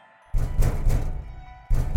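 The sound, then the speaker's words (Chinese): Heavy, dull knocking on a door: a loud run of low thuds starts suddenly after a brief silence, fades slightly, then another burst of pounding begins. No one speaks. “门外竟然响起了敲门声，我瞬间从脚底麻到头顶。”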